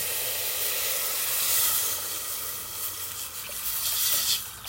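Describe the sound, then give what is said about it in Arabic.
Steady sizzling of food frying together in a pot before water is added, a bright continuous hiss with faint crackles and slight swells, no voices present. “حاليا عم بتقلوا سويا وبنضيف عليهم المي أيوة.”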